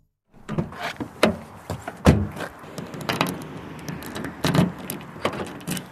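Several sharp thumps and clunks as the door of a thoroughly frozen car is banged and slammed shut, spaced irregularly over a low outdoor rumble, with no voices, at 6:17 at the Kranj east junction by the Gorenjska motorway.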